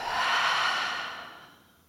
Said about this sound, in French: Et pour vous redynamiser, vous pouvez prendre une profonde inspiration par le nez et souffler fort par la bouche.